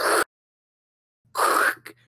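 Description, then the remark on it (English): A voice imitates scraping a Cold Stone Creamery rewards card across skin to scrape burned skin off the body: two harsh, raspy bursts, a short one then a longer, louder rasp trailing off into a brief sputter. “That's the sound of you scraping it off your body, right?”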